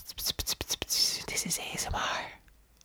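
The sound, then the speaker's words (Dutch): Soft, breathy ASMR-style whispering, with sharp sibilant bursts and airy hissing in quick succession, fading out near the end. “Eh, tikken met, met de nagels tegen de microfoon of zacht fluisteren.”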